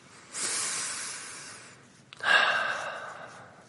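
A long, airy inhalation drawn in over about a second and a half, then a brief pause and a slightly louder breath out with a soft rasp, unaccompanied by speech.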